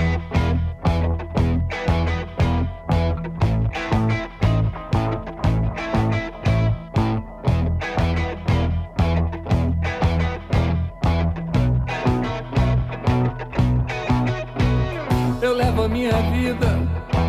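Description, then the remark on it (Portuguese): A full song plays loud and steady, with a regular driving beat, strong bass and layered instruments throughout, no one talking over it. “Então vamos lá, vamos lá ouvir e ver como é que ficou esse álbum.”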